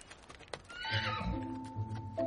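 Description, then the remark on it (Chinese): A donkey brays in one long, loud, strained call with a reedy, wavering pitch that holds for over a second, after a few soft knocking sounds. No one speaks. “这可不是一般的毛驴，它能吐金币出来呢。”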